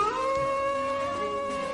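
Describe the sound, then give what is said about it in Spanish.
A wolf howls outside a tower at night in one long, sustained, tonal note that rises slightly at the start and then holds steady, heard clearly on its own with no voices. “En el exterior de la torre, un lobo empezó a aullar.”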